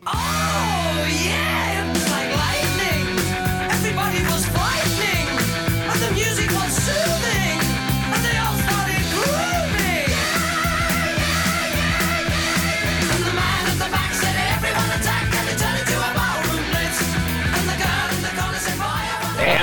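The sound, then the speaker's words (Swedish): A loud, driving glam rock song plays throughout, with pounding drums, distorted electric guitars and shouted vocals over a steady stomping beat. “Ja, det är ju … med ….”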